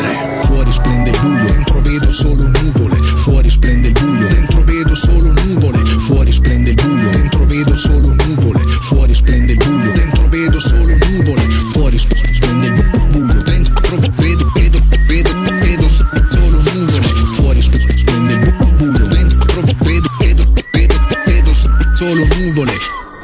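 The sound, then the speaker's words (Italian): A loud, dense drum and bass track plays continuously, with fast, driving beats, a whistled melody and bell-like tones layered over deep bass throughout. “C'è, c'è uno che fischia, poi c'è il suono di una campana, suoni e battere, e poi c'è il drum and bass.”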